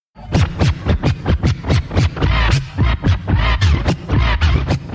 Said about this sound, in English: I'm admitting that I put grease on an electrical contact. But that's what I would do to my mixers to make them slide so I could perform these scratches.